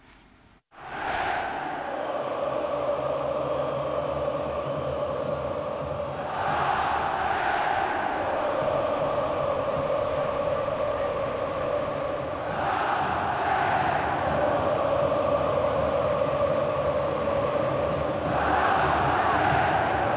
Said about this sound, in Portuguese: É o time dividindo né, a alegria da vitória com a torcida foi uma cena muito legal que a gente resgata e traz aqui ao Linha de Passe.